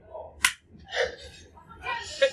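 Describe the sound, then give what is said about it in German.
One sharp hand clap rings out clearly, a single crisp smack used as an editing cue, with muffled background voices and noise before and after it. “Okay, wir klatschen jetzt einmal. Als Zeichen dafür, dass wir es drin lassen.”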